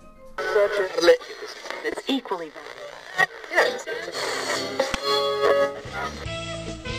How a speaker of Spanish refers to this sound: Mejor busco una estación en la radio. Porque no he pagado el Spotify.